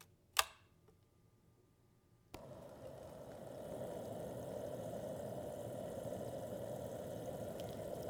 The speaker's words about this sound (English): While you do that, I'm going to go heat up the water.